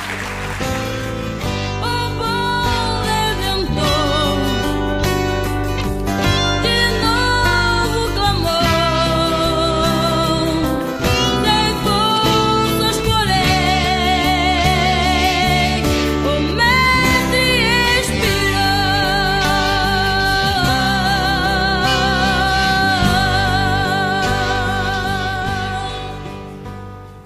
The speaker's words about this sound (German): Möchtest du diese Stimme mal in singender Form hören